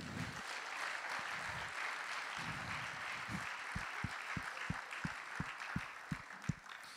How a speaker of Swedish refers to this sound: Vi ger dem en kraftig applåd.